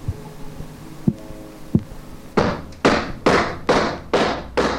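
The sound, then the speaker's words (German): A few dull thumps give way to a run of six sharp, evenly spaced knocking raps, loud, in a steady rhythm with no voices present. “Der Geist antwortet, klopfend. In sogenannten Raps”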